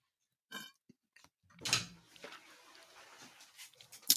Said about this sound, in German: Das war die Klospülung, er kommt wieder.